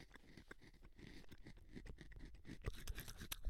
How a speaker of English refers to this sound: Listen to me chew.